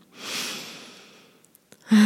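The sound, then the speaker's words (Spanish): A long, deep inhale, swelling then fading over about a second, followed by a few faint clicks before a voice starts at the very end. “Entonces tomen una respiración”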